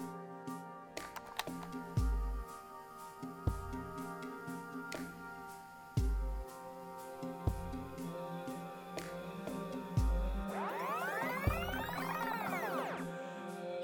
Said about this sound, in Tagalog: Sa kamalas-malasan, kinain ng player ang nagkabolbol yung inner reel ng VHS tape.